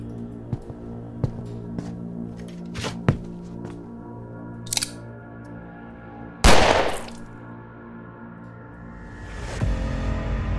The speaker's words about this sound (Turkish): Marvelous göğsünden, Laura ise kafasından vurmuştu Yosef'i. Artık yaşamıyordu.